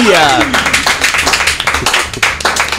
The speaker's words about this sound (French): Allez, on va être sérieux de minutes, on va applaudir notre invité, bien sûr,